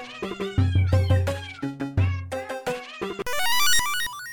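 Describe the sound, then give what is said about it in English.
Synthesized animal-like tones, short bark-like blips and meow-like gliding notes, bounce along in a quick melodic pattern over a deep bass pulse, ending in a rising, buzzy electronic sweep. “Oh yeah, yeah, they yeah they kind it kind of sounds like a little synth like dog bark.”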